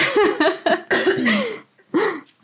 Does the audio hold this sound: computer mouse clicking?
no